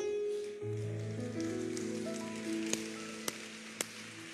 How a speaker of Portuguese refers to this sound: Então coloque-se em pé. Coloque-se em pé aplaudindo o Senhor.